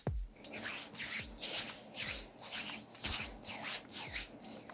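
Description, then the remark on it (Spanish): Hands rub together in a steady back-and-forth rhythm, a dry, hissy swishing that imitates pouring sand, repeated about six times, fairly loud, with no voices. “En el caso 2, se frotan las manos imitando el sonido de la arena.”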